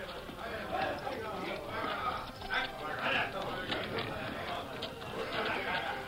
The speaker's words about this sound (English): They have some men slung across their saddles, Tonto. Soldiers, and they're wounded. Uh, other soldiers riding horses.